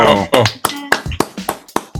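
Scattered, fairly loud claps from an audience, sounding at an uneven pace of roughly three per second, mixed with voices calling out over them.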